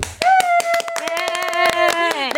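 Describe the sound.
A few people clap their hands on a radio show before a quiz game, a quick, uneven burst of sharp claps, while sustained voices call out over the applause.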